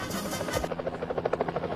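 A helicopter's rotor chops in a fast, steady thumping rhythm over a broad engine roar, fairly loud and with no voices.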